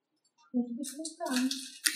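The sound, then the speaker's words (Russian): A voice imitates a geyser erupting, mixing a low voiced tone with several gushing, breathy hiss bursts, fairly loud and lasting about a second and a half. “Гизер такой па, Понимаете, что это?”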